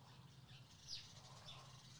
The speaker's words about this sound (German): Hört man die Vögel im Hintergrund?